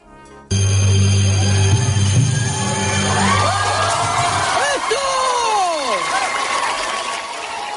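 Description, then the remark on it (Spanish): A live audience at a juggling performance in California in February 2019, where a juggler keeps 11 balls in the air without dropping any, erupts in loud shouts, cheers and applause that start abruptly and continue throughout, with rising and falling whoops and whistles over the steady roar of the crowd. “Los gritos y aplausos del público lo dicen todo.”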